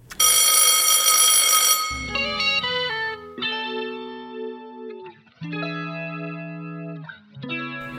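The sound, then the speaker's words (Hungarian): A school bell rings to end the lesson for the break: a loud, buzzing electric ring for about two seconds, then a series of sustained, melodic chime tones playing a short tune, with no talking. “Ja, tényleg kicsöngettek.”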